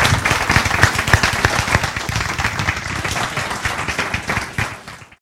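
A crowd at an American Planning Association program on municipal finance applauds steadily with dense, overlapping claps at a fairly loud level, holding for several seconds before thinning out and trailing off at the end.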